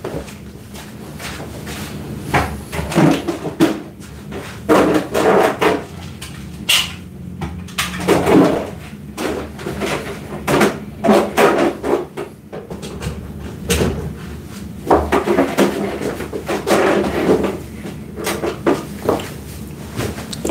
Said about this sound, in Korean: 네, 소음이 좀 나겠지만 선풍기를 좀 설치해 봐야 되겠어요. 잠깐만.